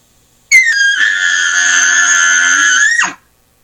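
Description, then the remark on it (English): A single loud, high, reedy note from a game call blown with fluttering lips, held steady for about two and a half seconds with a slight flutter, then cut off abruptly. No one speaks. “I used to with those narrow mouthpiece calls, I would literally have to pull the call away from my mouth so that it would vibrate and not stop my lips from vibrating.”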